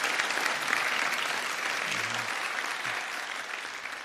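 Steady audience applause, a dense wash of many hands clapping at an even loudness throughout, with no voices standing out above it.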